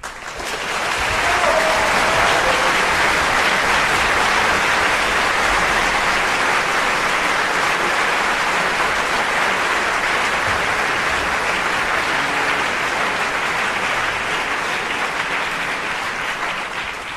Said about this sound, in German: Ich denke, jeder Beitrag hier ist so einen Applaus wert. Also die anderen waren es natürlich auch, aber das brauchen wir jetzt einfach fürs finale Feeling.